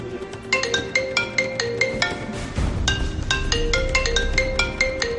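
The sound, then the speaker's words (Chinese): A mobile phone belonging to a woman rings at 19:23 with a bright, repeating electronic melody of short high-pitched tones in a steady rhythm, fairly loud, with a low rumbling backdrop beneath and no talking. “而就在赵某一家人为儿子的迟迟没有回到家而感到担忧的时候，也就是十九点二十三分，赵某妻子的手机突然响了起来。”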